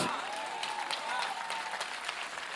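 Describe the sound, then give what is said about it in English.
An audience at a conference applauds steadily, a dense wash of many hands clapping at an even, moderate loudness for a couple of seconds, with a faint murmur of crowd noise underneath. “You should clap bigger О, би да аплодираш малко повече.”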